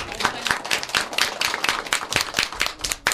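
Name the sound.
loud applause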